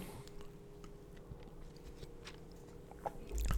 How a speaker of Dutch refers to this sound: Ik neem even een slokje water.